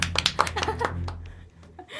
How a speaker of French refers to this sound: Moi je dis on peut l'applaudir.